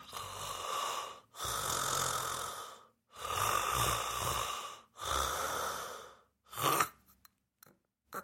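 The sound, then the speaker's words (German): A person imitates snoring with a collapsing airway, as when lying on the back and the tongue falls back into the throat: four long, rasping breaths in a steady rhythm, then a shorter choked snort trailing into a few faint catches and silence, fairly loud with no talking. “Also äh, man, vor allem wenn man im Rücken liegt, dann fällt die Zunge hinten in den Rachen rein”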